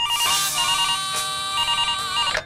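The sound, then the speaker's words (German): A telephone rings before a phone call, with a bright, electronic warbling tone, steady and fairly loud, repeating in a quick pattern for a couple of seconds with no one speaking. “Eh klar, im berühmtesten Telefongespräch des Landes.”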